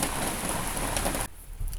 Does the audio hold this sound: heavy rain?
yes